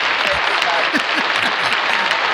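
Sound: applause sound effect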